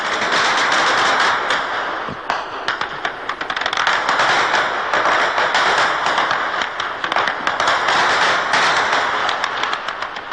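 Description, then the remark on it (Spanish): Heavy gunfire at night as Israeli forces fire hundreds of bullets in the Rafah district of Gaza: a dense, continuous stream of sharp cracking shots overlapping in rapid bursts, loud throughout the whole stretch with no voices and barely a pause. “Todas las noches que pasamos allí, los israelíes dispararon cientos de balas en la zona.”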